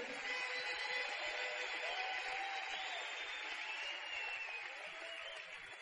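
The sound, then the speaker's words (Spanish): An audience claps steadily for about six seconds, a dense, continuous wash of applause with no one talking, easing off only slightly toward the end. “Vamos a un aplauso entonces como ella se lo merece.”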